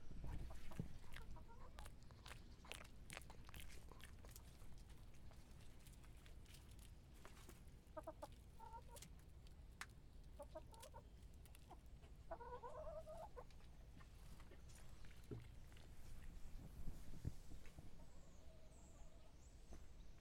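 Farmyard ambience on a farm with chickens clucking repeatedly, scattered short calls over a steady low background hum, with occasional sharp knocks and no one talking.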